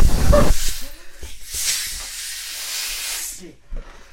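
Air rushes out of a released balloon in a loud, broad hiss that sustains and surges for several seconds, with brief low sputters and faint background voices underneath.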